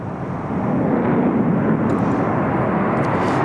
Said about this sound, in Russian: Трое истребителей пятого поколения Су-57 появляется над Красной площадью.